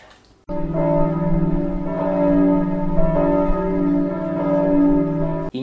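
Bells ring continuously for about five seconds, a loud, close, sustained peal of overlapping tones that swells and shimmers with no voices, then cuts off abruptly.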